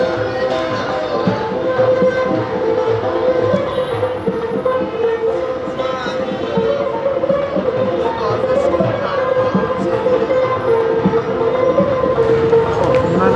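Busy street ambience on northern Valiasr Street approaching Tajrish Square on a mild, sunny spring day: a steady, loud wash of traffic rumble and overlapping chatter of joyful crowds, continuous throughout without any single standout sound.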